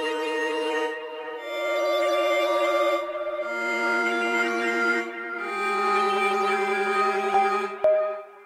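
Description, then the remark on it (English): A fuzzy, buzzing sound effect made for fluorescent light bulbs: a steady electronic drone with warbling, wavering tones that shift in pitch over several seconds, ending with a brief bright ping, a found sound effect thought to be from an elevator. No one speaks. “The kind of fuzzy sound that comes yeah. in there was we were like, we need a sound for fluorescent light bulbs.”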